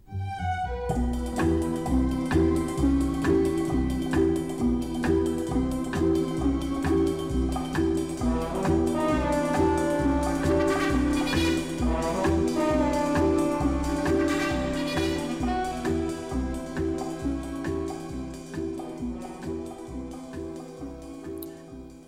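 A full, jazzy orchestral arrangement of the James Bond theme plays throughout, with brassy swells and a steady driving rhythm, loud and dense, no voices; it plays in a Bond film's opening scene as Bond makes his way into a cistern.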